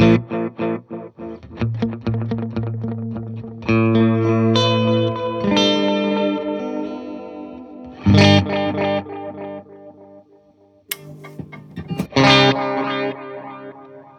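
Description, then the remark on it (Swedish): An electric guitar run through a delay pedal set to play delay heads 1 and 2, its picked notes and chords repeating in layered echoes that smear into a dense, rhythmic wash, with bright strummed bursts near the end. “Och, och trycker man då en gång till, då får man alltså huvud 1 och 2.”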